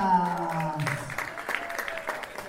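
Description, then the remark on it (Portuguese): An audience bursts into applause for the poets, a dense, steady patter of many hands clapping that follows a voice trailing off at the start and carries on for a couple of seconds. “Palmas para todos ex poetas!”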